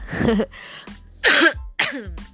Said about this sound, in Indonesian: sebelum aku uh, panjang lebar nih ya tentang ngembaliin semangat kerja, aku boleh batuk dulu nggak?